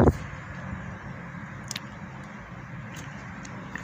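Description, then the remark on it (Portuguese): Steady low rumble of a car cabin while driving to Florianópolis, a constant engine and road drone with a sharp click at the start and a few faint ticks later. No one speaks. “E é por isso que eu tô no carro hoje”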